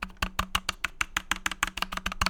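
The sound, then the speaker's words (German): A rapid run of about a dozen crisp clicks from large stabilized mechanical keyboard keys being pressed, each a solid thock with no rattle or wobble, with no talking. “Ähm, also man hört, auch, man hört die auch nicht rattlen, wenn ich da drauf drücke.”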